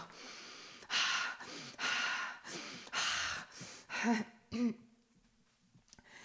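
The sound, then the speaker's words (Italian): A person takes a run of deep, heavy calming breaths, drawn in and pushed out, about five in steady succession, then two shorter voiced exhales before it falls quiet. “Respiro.”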